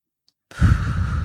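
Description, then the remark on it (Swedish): After a brief silence, a single audible breath is slowly drawn in for a count of three, a steady airy rush that continues to the end. No one speaks. “Eh, så då andas man in på tre”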